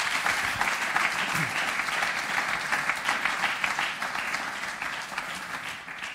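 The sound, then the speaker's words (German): A church audience claps steadily, a dense, sustained wave of applause that holds at an even level for several seconds before easing slightly near the end. “Geben wir euch einen Applaus.”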